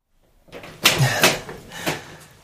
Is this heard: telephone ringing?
no